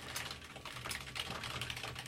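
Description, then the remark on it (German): Rapid, continuous clicking of keys on a computer keyboard as someone types a Google search, a dense stream of quick taps with no pauses, moderately loud, with no voices. “Zu schnell getippt, so schnell tippt niemand.”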